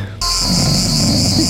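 A dense chorus of a hundred cicadas switches on abruptly and keeps buzzing, a loud, steady, high-pitched drone with a low rumble underneath and no pauses.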